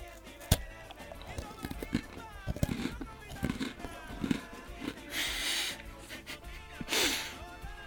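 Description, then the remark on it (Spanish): ASMR-style munching on an Oreo sandwich cookie: a sharp bite near the start, then steady wet chewing and crackly crunches, with a couple of louder, breathy crunching bursts toward the end. “Una Oreo. Más EMR, así.”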